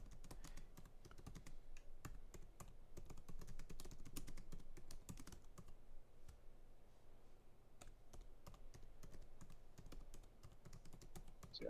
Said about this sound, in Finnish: naputtaa nyt. Joo, mä en pysty yhtä aikaa puhua ja kirjoittaa, koska Joo. mä oon mies.